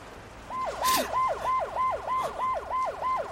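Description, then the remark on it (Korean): A police siren yelps in quick, steady cycles, its pitch sweeping up and down rapidly about three times a second. Loud, with no voices, it kicks in after a brief moment of background hiss. “사이렌 준비해.”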